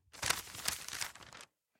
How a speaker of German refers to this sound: Und wenn eine neue Frage, also eine Eulenpost hereingeflattert kommt, dann klingt das so.